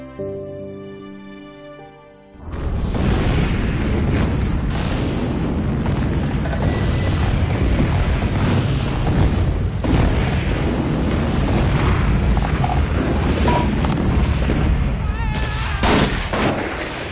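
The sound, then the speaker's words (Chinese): A few seconds of soft tonal music give way abruptly to a loud, dense barrage of gunfire and booming artillery explosions, with sharp cracks and rumbling blasts continuing steadily to the end. “康家的繁盛终究未能抵过历史的枪炮声。”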